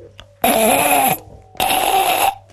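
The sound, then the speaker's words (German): A voice imitates the squeaking wheel of a donkey cart driving over a bumpy road, the wheel squeaking at one spot of its rim: two loud, strained, grating squeals, each lasting under a second and separated by a short pause, sounding harsh. “ein Eselskarren, der über eine holprige Straße fährt und das Rad quietscht an einer Stelle des Umkreises”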